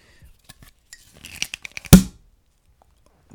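Clicks and scraping of the wire cage being worked on a beer bottle with a champagne-style cap, building to a single sharp, loud pop, then quiet.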